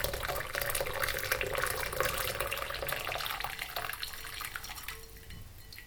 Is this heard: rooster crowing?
no